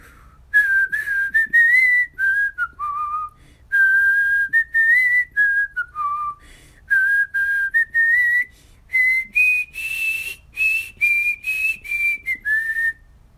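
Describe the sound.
A clear whistled melody plays alone, a single pure tone gliding through short phrases separated by brief pauses, rising in pitch toward the end.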